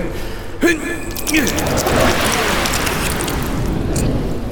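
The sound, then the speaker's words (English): Thick, squelchy splorping of a parting mayonnaise sea, a sound effect of Moses parting the Sea of Reeds made of mayonnaise instead of water: a steady wet, goopy churn with a couple of gloopy, sliding squelches early on, fairly loud throughout. “the splorping of the Sea of Mayo”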